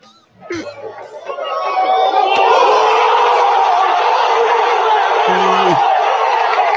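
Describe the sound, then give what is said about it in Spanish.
A large stadium crowd of Sporting Cristal home fans in the stands roars into a sustained wall of shouting and jeering during a match against Melgar, with shrill whistles cutting through the dense, loud noise. The clamor swells quickly and stays steady to the end. “Esta semana los gritos y silbatos de la tribuna no eran justamente de la barra visitante.”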